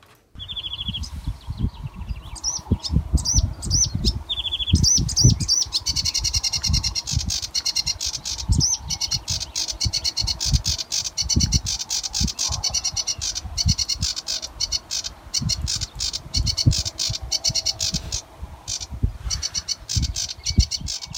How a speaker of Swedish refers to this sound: Det låter som att det är någon som är lätt irriterad. Ja, Ja, jag kommer närmast att tänka på sävsångaren här.